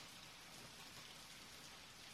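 Heavy rain pours down in a dense, steady hiss, loud and unbroken across the whole stretch with no gaps and no voices.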